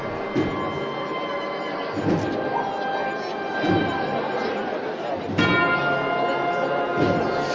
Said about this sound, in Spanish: Se ve María de Caccini y por cierto estaré escuchando la campana. Estábamos escuchando la campana